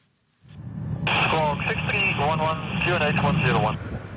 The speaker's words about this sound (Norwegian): Et helikopter går inn for landing i en vindpark i Nordsjøen.